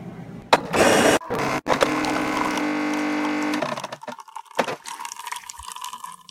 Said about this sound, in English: Noise you heard at the beginning, that's my coffee maker, Rhonda.